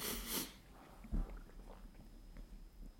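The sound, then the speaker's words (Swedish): A soft swallow of a sip of coffee: a brief breathy rustle first, then a single low gulp a moment later, with quiet background noise and no talking. “Och så bara sväljer jag lite kaffe.”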